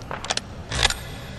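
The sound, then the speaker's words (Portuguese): A quick series of sharp metallic clicks, followed by a heavier, louder clack-and-slide as a gun's breech bolt is worked, with no voices. “A culatra, ele desarma o tatac.”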